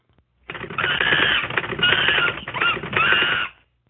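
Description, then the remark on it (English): A short, loud jingle of rapid typewriter clatter, dense and mechanical, running steadily for about three seconds in bursts with a bright tone over the keystrokes before cutting off, introducing a news segment. “It's the typing Monkey. It's news time.”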